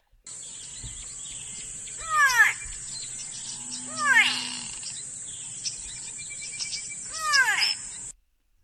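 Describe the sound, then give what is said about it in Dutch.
A grey go-away-bird calls three times with drawn-out, nasal, downward-sliding cries spaced a couple of seconds apart, over a constant high buzz of insects. “Ja, dat is een vogel. Eh, volgens mij is dat die grijze met die staart die omhoog, die, die, die kam die omhoog gaat.”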